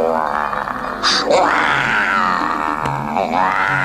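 A tiger roars loudly for nearly four seconds, a rough, rumbling growl that swells, dips and rises again in pitch, with no voices over it.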